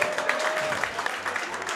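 A crowd claps steadily in a dense burst of applause, the rapid overlapping claps blending into an even, fairly loud wash that fills the whole moment.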